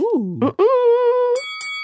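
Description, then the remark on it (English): A voice glides through a sustained sung tone, then bright, ringing chime-like tones strike about three times in quick succession, clear, like a short bell sound effect. “Should that have been like half a bell?”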